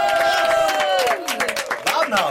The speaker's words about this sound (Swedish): Härligt att höra att eh, ni eh, jublar lite. Såklart! Vi hejar ju på dig.